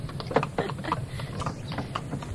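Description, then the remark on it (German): Horse hooves clip-clop at a steady, irregular trot, each hoof strike a sharp knock over a continuous low rumble of the rolling wheels of a horse-drawn carriage taking someone home, moderately loud, with no voices. “Finde ich echt super, dass ihr mich heute mit der Kutsche nach Hause bringt.”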